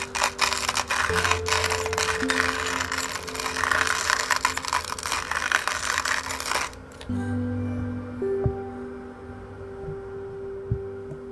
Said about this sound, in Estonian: kohvi, veski